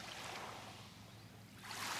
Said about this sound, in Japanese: 海水浴場をこの地平線ね瀬戸内海見ながら今年の思いね、まあ、叫ばなくて結構ですこの波音を聞きながら一言お願いします